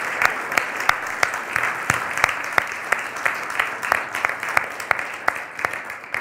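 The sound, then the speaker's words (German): Steady audience applause for children after a nativity play fills the whole stretch, a dense wash of clapping with sharper individual claps standing out in a loose, irregular rhythm. No one speaks over it. “Wir können alle mal einen ganz großen Applaus für die Kinder geben.”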